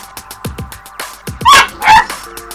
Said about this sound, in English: Meet Jet, our new puppy, our boxer lab of nine weeks.